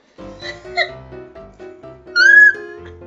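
cats fighting and meowing

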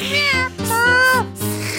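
cats meowing

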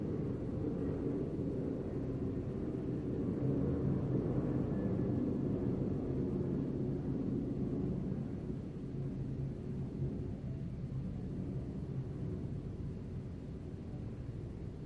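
airplane flying overhead

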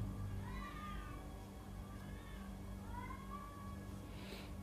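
cats caterwauling

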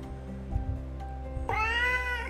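cat meowing

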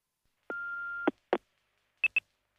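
answering machine beep

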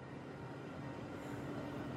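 train

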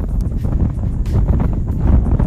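wind blowing

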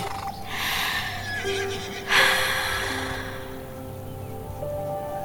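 horse whinnying

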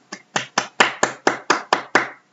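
applause

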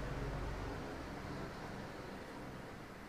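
airplane flying overhead

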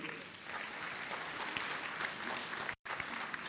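audience clapping hands

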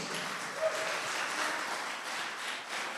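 audience applauding

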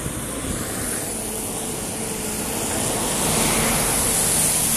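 truck passing by outside

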